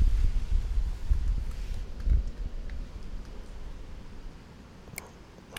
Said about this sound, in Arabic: في شوية ريح مازال